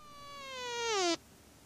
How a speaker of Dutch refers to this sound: Ik heb die ambetante vlieg hier een mot gegeven. Die zit hier godverdomme alleen een tijd te brommen.